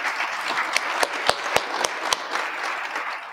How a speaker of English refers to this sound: So, there, give her a round of applause.